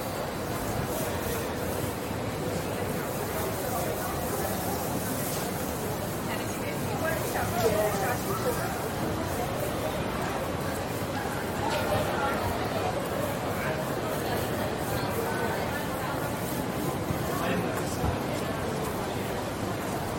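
Steady ambience of a busy business street, George Street, with businesspeople walking by: constant murmuring crowd chatter and footsteps of people passing, overlaid on a dense wash of traffic and urban noise.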